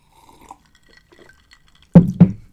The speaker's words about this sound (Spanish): Últimamente está haciendo mucho calor, entonces aquí tengo mi agüita con hielos por si me da sed. Creo que esto va a ser una SMR, miren. Escuchen los hielos, el vaso y proseguiré a tomar.